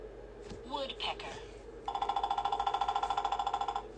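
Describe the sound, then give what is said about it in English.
A woodpecker hammers on a tree to find food, drumming in a fast, steady burst of sharp taps lasting about two seconds, fairly loud, after a brief voice-like call at the start. “Yeah, the woodpecker hammers to find food.”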